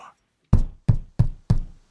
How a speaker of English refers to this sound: And we shall play a game of chess, pressing lidless eyes and waiting for a knock upon the door.